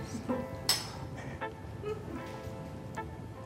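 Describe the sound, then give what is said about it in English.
A bright glassy clink of cocktail glasses in a toast rings out once, followed by a couple of fainter taps, over a low murmur of people chatting around a table. “Well, cheers, everybody. Let's dig in.”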